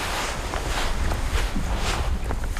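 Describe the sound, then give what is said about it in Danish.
Footsteps crunching and creaking in dry sand on sand hills, feet sinking in slightly, about five soft, gritty steps at an even walking pace over a steady low rumble of wind. “Man synker lidt i. Det knager under fødderne.”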